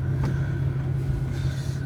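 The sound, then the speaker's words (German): A car engine hums steadily, a low continuous rumble with slight rises as the vehicle creeps along, maneuvering slowly through a full parking lot where drivers cannot decide where to park. No one speaks. “So Leute auf dem Parkplatz sich nicht entscheiden können, wo sie ihr Auto hinstellen sollen.”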